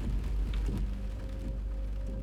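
Heavy rain pours down in a steady, dense hiss, with a deep low rumble of thunder rolling underneath the whole time. No voices are heard.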